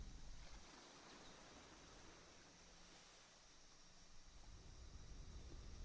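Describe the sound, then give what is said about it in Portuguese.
A continuous wash of ocean waves rolls on steadily, soft, swelling a little toward the end, with no voices over it. “Sentimos a natureza à nossa volta, a força do oceano, a força da terra, do ar e do fogo.”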